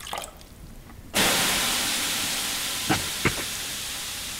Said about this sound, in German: Wir können ja kurz einen Aufguss machen, dann hast du ein paar Sekunden Zeit, den Werteflyer anzuschauen. Also ja. Also kurze Pause für den Aufguss.